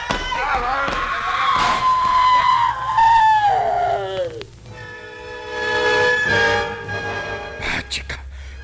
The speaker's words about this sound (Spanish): pues apurémonos, que a lo mejor oyeron el grito que pegó.